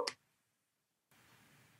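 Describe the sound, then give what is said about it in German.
A single crisp snip of scissors cutting toward a corner, followed by a brief silence and then a soft, steady rustling hiss. “Du schneidest einmal zur Ecke, so.”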